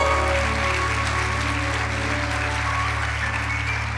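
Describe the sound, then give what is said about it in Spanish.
An audience applauds in a steady, unbroken wash of clapping that holds at a fairly loud, even level throughout, with no voices standing out above it. “El aplauso.”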